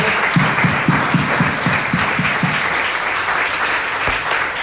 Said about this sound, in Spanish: Gloria a Dios, hermanos. Dale un aplauso al Señor por eso, por favor. Amén. Gloria a Dios.